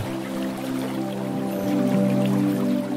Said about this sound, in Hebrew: אתם מרגישים אינטואיטיבית שהמפל הזה הוא מיוחד במינו. מפל קסום של ניקוי אנרגטי וריפוי.